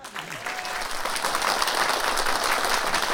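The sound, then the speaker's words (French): An audience bursts into loud, sustained applause for an accordionist, a dense wash of many hands clapping that swells and holds steady throughout. “On l'applaudit très fort.”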